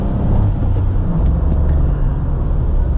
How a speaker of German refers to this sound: Also ich meine, der Sound des Motors, ja klar. Wenn ich jetzt wirklich beschleunige, dann höre ich den Dreizylinder.